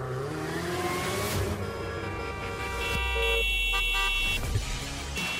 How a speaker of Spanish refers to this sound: El claxon en tu auto es solo para una emergencia, no para faltar al respeto a los demás.